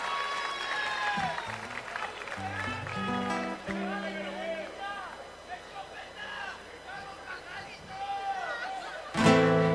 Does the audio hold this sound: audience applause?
yes